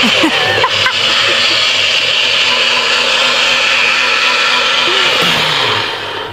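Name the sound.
blender running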